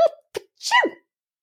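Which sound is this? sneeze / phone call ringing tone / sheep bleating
sneeze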